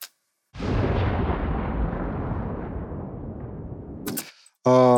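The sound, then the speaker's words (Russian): A heavy tank cannon shot tail, a separate layer of the shot's sound design: a loud, broad rumbling roll that slowly fades over about four seconds, followed by a brief moment of a voice starting to speak. “Есть саб отдельно слой, есть отдельно хвост выстрела,”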